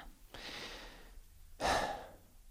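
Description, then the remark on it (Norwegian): A slow, calm breath drawn in softly, a short pause, then a fuller, louder exhale, both airy with no talking; a deep breath taken to calm oneself down. “Du kan ved bruk av pusten på denne måten roe deg selv ned, både i en stressende situasjon, og også forebyggende.”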